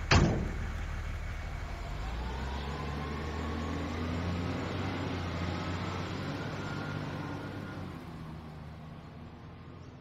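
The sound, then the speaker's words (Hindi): A truck engine starts up abruptly and keeps running steadily, a loud, low rumble with a droning hum that fades slightly toward the end. No one speaks. “दोनों शरीर को वो गुमनाम इंसान घसीट कर अपने ट्रक की तरफ ले गया”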